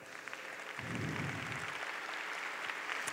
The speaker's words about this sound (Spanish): ¡Wow! Dale un fuerte aplauso a ella.